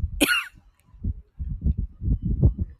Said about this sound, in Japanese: 皆さん、いかがお過ごしでしょうかなんか最初から咳き込んでしまうという、申し訳ありません。あの、ちょっとね、公園に来ておりまして、はい。風が強くてね